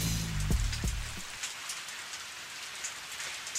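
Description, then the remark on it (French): Steady rain patters down in a dense, hissing wash, with brief low rumbling thuds at the start before the downpour continues alone, even. “On dirait qu'il pleut.”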